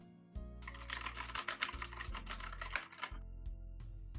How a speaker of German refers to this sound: Ja, ich habe jetzt ja äh, auch eine mechanische Tastatur und die ist schon ziemlich laut. Ich weiß gar nicht, welche Taste kann ich jetzt drücken, aber ich einfach.